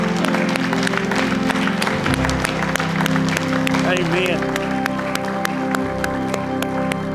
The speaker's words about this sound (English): If that's your cry, would you give Him a hand clap of worship this morning?